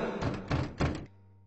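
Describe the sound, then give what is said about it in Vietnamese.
Three heavy, booming thuds land in quick succession on a door, loud, each blow ringing slightly before fading into a low hum; a demon relentlessly pounding its fists on the door. “con quỷ không ngừng đập cửa Sức đấm mạnh tới mức Tuyết cảm thấy lục phủ ngũ tạng của bản thân Đang dần bị vỡ ra từng mảnh”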